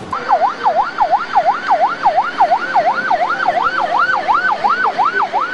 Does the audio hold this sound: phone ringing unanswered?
no